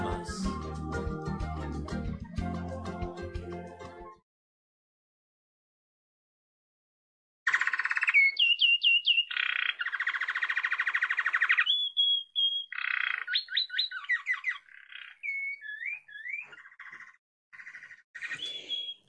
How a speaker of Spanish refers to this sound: El jilguero dorado que estamos escuchando es una de las aves más conocidas de la Argentina, a tal punto que es difícil salir al campo y no verlo.